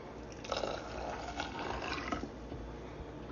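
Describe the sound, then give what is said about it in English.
Boiling water pours from a cup into a thick plastic funnel in a steady splashing stream with a gurgling, rushing texture, holding fairly even in loudness throughout, with no talking. “So I have my cup of boiling water, and I'm pouring”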